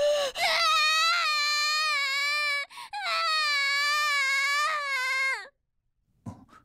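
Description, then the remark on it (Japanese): A lost child at an amusement park wails loudly in two long, sustained, strained crying bursts with a brief gasp between them, followed by silence and a faint sniffle at the end. “遊園地を満喫した3人は迷子になった子供を発見する泣いている子供に対して”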